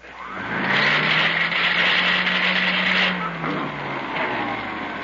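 A just-repaired vacuum cleaner is switched on: its motor kicks on with a loud, steady droning whine, a low hum underneath and a rough, chugging quality, running continuously for about five seconds with no talking.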